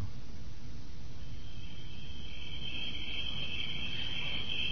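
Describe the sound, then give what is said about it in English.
Steady, high-pitched cricket chirring fills a quiet forest at night, growing denser partway through over a low, constant rumble. No one speaks. “And if you listen very carefully, you can hear the sounds of that forest right now.”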